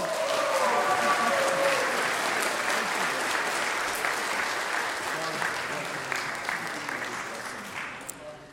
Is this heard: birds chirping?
no